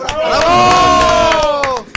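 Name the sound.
audience applause and cheering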